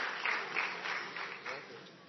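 A crowd claps together in a steady burst of applause for a man who answered a quiz question about Methuselah's age, fairly loud and continuous for a couple of seconds, with a few rhythmic swells standing out.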